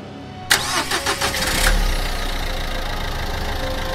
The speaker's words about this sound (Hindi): कमर कुछ सीधी कर लगभग आधे घंटे के बाद हमने गाड़ी स्टार्ट की